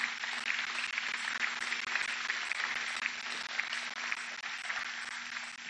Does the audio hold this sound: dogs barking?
no